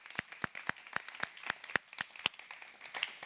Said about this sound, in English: Can we play, uh, clap for our children as they go? They head out.